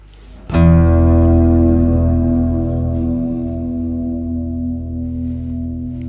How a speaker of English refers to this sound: ah like, like, with a freeze yeah exactly with a yeah, freeze yeah, uh, yeah, uh, on the reverb so let, us try it and see what it sounds like yeah, yeah.